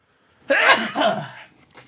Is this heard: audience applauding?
no